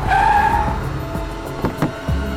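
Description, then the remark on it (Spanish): A car's tires squeal sharply for a moment, then a rumbling engine pulls away with a few thumps and clatters, fairly loud, with no one speaking. “Siga ese auto.”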